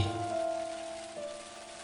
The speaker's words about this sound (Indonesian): Sore itu hujan lebat.